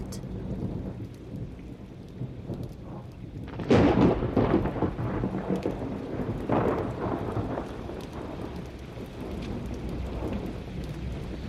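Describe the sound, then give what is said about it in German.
Steady heavy rain hisses throughout, broken by a loud crack of thunder around four seconds that rolls and rumbles, with a second, softer rumble following before the downpour settles back. “Im Licht der Blitze werden hinter dunkelvioletten Wolken Fetzen weißen Himmels sichtbar”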